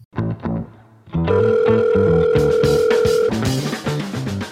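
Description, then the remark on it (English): A telephone call rings with one long, steady electronic tone, loud, sounding over a busy rhythmic musical backing that continues after the ring stops; the call goes straight to voicemail. No one speaks. “At any point, it'll go straight to voicemail. Uh, so don't worry about someone picking up the phone.”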